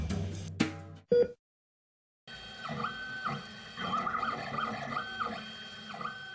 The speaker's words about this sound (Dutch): Ja, wat je hoort is het geluid van een 3D-printer eh, die aan het werk is. En voor de meesten klinkt dat niet heel veel anders dan een eh, reguliere printer.